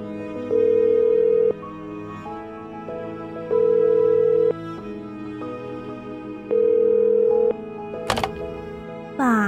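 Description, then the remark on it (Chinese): A telephone tone sounds during a call as a girl phones her father to ask him to pick her up: a steady mid-pitched beep repeats three times, each lasting about a second with longer gaps, over soft background music, followed by a sharp click. “只好打电话给爸爸，请他来载他。”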